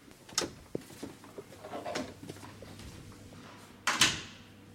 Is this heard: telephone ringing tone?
no